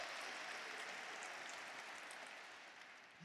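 An audience at a morning church service applauds steadily in praise of the name of the Lord, a dense wash of many hands clapping at once that holds for a few seconds and then eases slightly toward the end.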